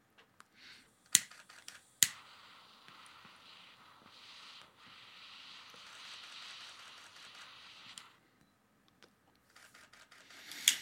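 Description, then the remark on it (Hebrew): A few sharp camera shutter clicks, spaced irregularly, as a camera photographs a man lighting a cigar, with a steady airy hiss running underneath for several seconds in between. Fairly quiet, with no voices. “לכל מאזיננו, זיו פשוט צלם אותי עכשיו, אני מצית פה את הסיגר.”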